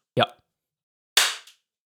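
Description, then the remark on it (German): One sharp hand clap, loud and crisp, its sound fading over a fraction of a second. A brief voiced sound comes just before it, followed by silence. “Dann klatsch doch einfach nochmal.”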